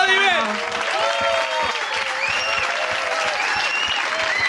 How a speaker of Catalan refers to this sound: Fortíssim aplaudiment, clar que sí!